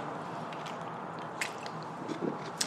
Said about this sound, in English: I'm going to have a little drink here. Drink up, Shriners.